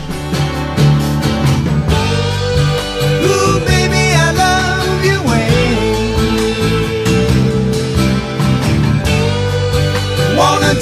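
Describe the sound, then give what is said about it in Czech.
A 1975 pop-rock song recording plays loudly and steadily, with a sung vocal line gliding over a full band of guitars, bass and drums, filling the whole stretch without pause. “to v roce 1975 ji nahrál a zní takhle.”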